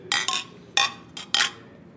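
Beer glasses clink together in a toast at a small brewery with a ten-barrel brew house: several quick ringing taps in an irregular cluster, fairly bright, with a faint ring fading after the last one and no voices.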